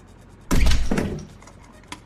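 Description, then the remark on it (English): An inner office door slams open with a loud, heavy bang, rattling glasses on the desk in a brief tail as it fades, then a small faint click. No one speaks. “A second later, the inner office door slammed open, rattling glasses on the desk.”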